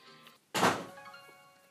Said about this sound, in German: Das war die Türe.